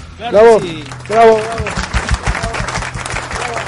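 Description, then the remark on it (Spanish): Two whooping cheers open into a burst of audience applause for the end of a show's second season, dense rapid clapping that carries on steadily for a few seconds. “Y voy a pedir, por favor, unos aplausos para la segunda temporada que ya se fue.”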